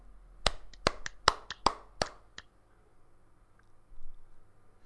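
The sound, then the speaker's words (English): A quick burst of about seven sharp hand claps, made to sync a recording, in an uneven rhythm over roughly two seconds, followed by quiet room hum and a faint click. “and we'll clap a couple times.”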